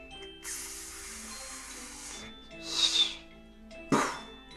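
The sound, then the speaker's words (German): New Year's Eve fireworks rockets whooshing: a long, steady hissing rush, then a shorter swelling whoosh and a final sharp burst, heard alone at moderate volume. “Das sind Silvesterraketen, ganz genau.”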